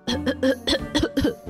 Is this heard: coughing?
yes